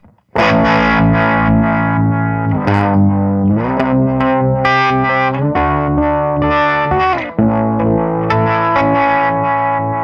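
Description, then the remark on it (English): Electric guitar chords played through a choppy harmonic tremolo with a square-wave pulse, the tone pulsing abruptly in a steady rhythm, loud with no talking. “So there's the square wave on the standard tremolo. Let's take it to the harmonic.”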